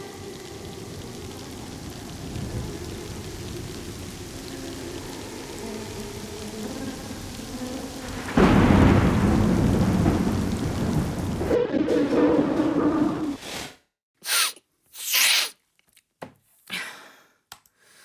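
heavy rain with thunder

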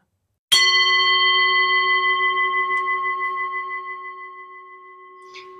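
meditation gong ringing

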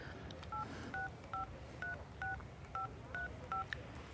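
telephone number being dialed

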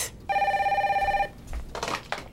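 telephone ringing

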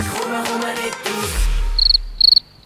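crickets chirping

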